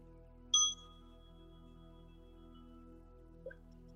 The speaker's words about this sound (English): See if you can follow that bell from beginning to end.